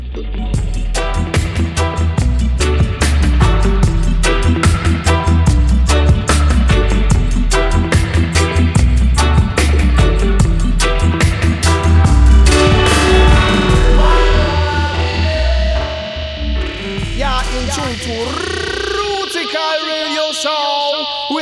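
A loud dub reggae instrumental with heavy bass and a steady, choppy beat; toward the end the drums drop out and swirling echo and delay tails sweep and fade.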